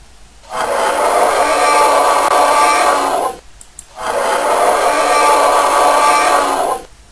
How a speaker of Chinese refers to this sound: 对了，这是恐龙的叫声，听上去是不是有点吓人呢？